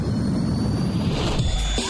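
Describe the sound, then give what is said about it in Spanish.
A loud, steady engine roar at takeoff fills the moment, a dense low rumble with a whining high tone on top, like a jet spooling up for takeoff, shifting slightly near the end. “Motores. Con niveles de energía óptimos. Iniciamos despegue.”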